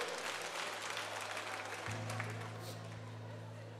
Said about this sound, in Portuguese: Pode aplaudir a Jesus, mulher.